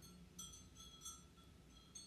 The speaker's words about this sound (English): Do you hear that clanging? The wind is blowing in the window so much that it's making my glass rainbow chimes hit together. I actually hate the sound of them.